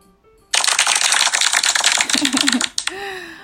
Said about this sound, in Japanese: みんなパチパチするよ。耳をよけて。